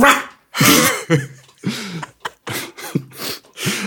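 A dog barks loudly, a rapid, uneven string of about eight sharp barks with brief gaps between them. No one speaks.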